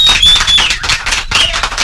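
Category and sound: crowd, applause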